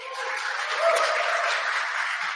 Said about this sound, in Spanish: Así es que les dejo aquí a mi esposa, recíbamela con un fuerte aplauso